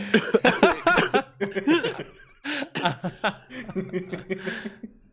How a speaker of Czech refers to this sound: Ty já se zasměju a prostě nutí mě to do kašle.